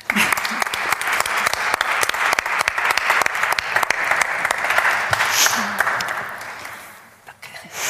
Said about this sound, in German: Schenken wir ihm gleich einen großen Applaus.